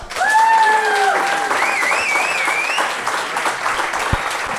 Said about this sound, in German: Deswegen jetzt das Applausbarometer für Straight Out of Würzburg live im Kulmens.